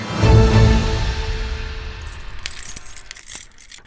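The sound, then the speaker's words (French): Keys on the keychain of the mayor of Indisheim, Pascal Notizen, jingle and clink in a few quick metallic bursts, following a low rumbling handling sound at the start, with no one speaking. “Une séquence dans laquelle j'ai demandé au maire d'Indisheim, Pascal Notizen, de me présenter son porte-clés en expliquant l'utilité de chaque clé.”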